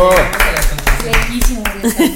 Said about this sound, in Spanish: Ah, nuestros invitados. Un aplauso a nuestros invitados. ¡Bravo!